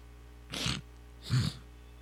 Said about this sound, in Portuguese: Me deu três espirros e uma coçada na, no céu da boca.